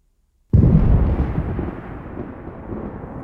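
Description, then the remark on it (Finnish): After a brief silence, a sudden massive explosion of the Krakatau volcano, in present-day Indonesia, on 27 August 1883, erupts with a deep, booming blast, then settles into a sustained, heavy rumbling roar that slowly fades but keeps churning to the end. “Maailman kovin ääni kuultiin vuonna 1883, kun tulivuori nimeltä Krakatau räjähti.”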